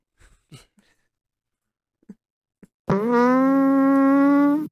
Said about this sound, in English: Just let's hear the noise. Cause farts are great.